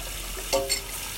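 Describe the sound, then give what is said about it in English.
Water runs steadily from a tap into a sink, with two quick, bright clinks of dishes knocking together partway through. No one speaks. “Look, I know you hate cleaning the dishes as much as I hate you sneaking around.”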